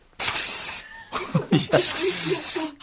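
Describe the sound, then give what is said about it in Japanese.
A loud, steady aerosol cooling spray, Kobayashi Pharmaceutical's heat-countermeasure extreme-cold spray mini used over clothes, hisses for over half a second, pauses, then sprays again in a longer burst, with people's voices talking and reacting over it. “第1位いきましょう小林製薬熱中対策服の上から極寒スプレーミニこれ最高これ私ミニじゃなくてビッグの方持ってるけどなんやかんやこれが一番”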